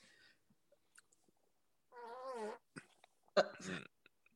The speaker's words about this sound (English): you just farted and the the mic caught your fart